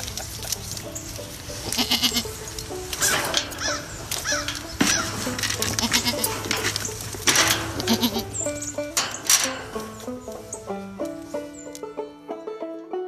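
A herd of goats bleats continuously, overlapping calls from several animals, fairly loud, with a low steady hum beneath and a few sustained musical tones entering near the end.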